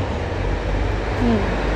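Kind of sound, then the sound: vehicle, car traffic noise outdoors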